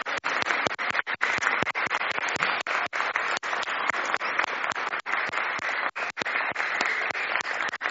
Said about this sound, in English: Should we give a big clap to everybody? Yeah.